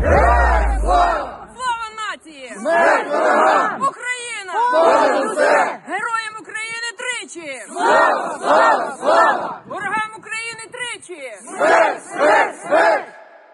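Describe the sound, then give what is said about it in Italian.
A Ukrainian volunteer militia chants the battle cry "Glory to Ukraine" in unison, a ritual done before starting training. Loud repeated shouted phrases in a steady rhythm, each burst rising and falling in pitch, with short pauses between them. “e i suoi seguaci e la sua milizia al grido di gloria all'Ucraina.”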